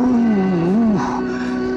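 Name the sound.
dog vocalizing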